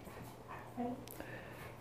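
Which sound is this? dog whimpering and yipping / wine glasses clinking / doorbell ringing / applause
dog whimpering and yipping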